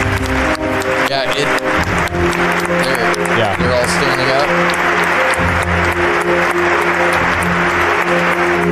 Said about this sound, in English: Oh, yep, there's the applause. Hang on.